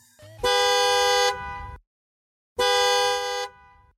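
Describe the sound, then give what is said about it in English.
A realistic car horn sound emitted by an arcade machine as its game's time runs out honks twice in long, steady blasts with a pause between them, each note bright and buzzy, fading out with a brief tail. No voices. “Before time completely ran out, the arcade machine emitted the realistic sound of a distant car horn, reminiscent of an impatient parent waiting for the kid to leave her friend's house.”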